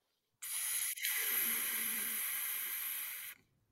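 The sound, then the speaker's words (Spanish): A steady, airy hiss like a ball deflating, lasting about three seconds at an even level with a brief catch near the start before it cuts off abruptly. No voices are heard. “Una, pelota, sonaba que están desinflando una pelota.”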